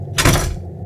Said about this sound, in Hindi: वहाँ उस कमरे में अंधेरा हो गया और सबको पीछे से स्टोर रूम का दरवाज़ा बंद होने की आवाज़ सुनाई दी